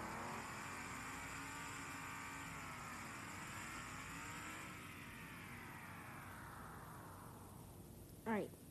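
Car engines drone and rise and fall in pitch as several NASCAR racing cars rev and accelerate past on the final lap of a race, steady and fairly loud throughout, with a brief sharp whine near the end.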